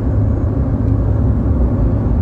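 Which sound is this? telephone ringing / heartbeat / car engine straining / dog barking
car engine straining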